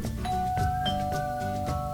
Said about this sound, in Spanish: El cerdito menor, al no saber quién es, se fijó por la ventana y vio que era el lobo feroz. Después volvió a tocar el timbre